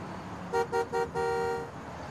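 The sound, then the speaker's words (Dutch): A car horn honks three quick times, then gives one longer blast, over a low rumble of road traffic on two busy highways at the edge of a large city. No one speaks. “Het zit helemaal ingesloten tussen twee drukke autowegen.”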